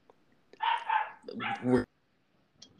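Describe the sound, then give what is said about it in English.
A tiny female foster dog barks in two quick, high-pitched bursts in a house, loud, with no one talking and quiet before and after. “in the background because one of the Fosters is deciding to give everyone hack.”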